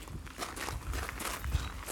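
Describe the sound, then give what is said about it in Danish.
Steady footsteps of a person on a half-hour walk for fresh air around a lake, a series of soft, evenly spaced crunching steps, with a light background hiss and no voices. “vi er gået over på den anden”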